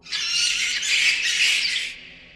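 A dense chorus of shrill, high-pitched squeals from dozens of panicked rats bursting out of a pit in the middle of an alley, many voices overlapping into one frantic, continuous screech for about two seconds before it thins and fades. It sounds agitated, with no talking.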